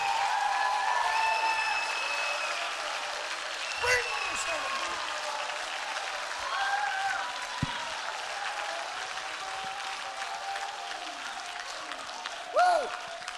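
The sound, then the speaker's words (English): An audience applauds and shouts steadily, a dense wash of clapping and voices that holds level throughout, with a few brief louder bursts of cheering rising out of the crowd. “Now you're shouting now, but I'm about to make some of you mad.”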